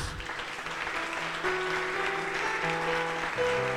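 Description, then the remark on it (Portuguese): An audience claps steadily for several seconds, giving a round of applause to Jesus, a dense crowd of applause while sustained keyboard or organ chords hold underneath. “Dá uma salva de palmas a Jesus.”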